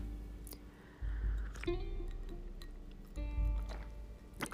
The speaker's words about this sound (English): Um, I hold on a second. I'm gonna take a sip of rosé.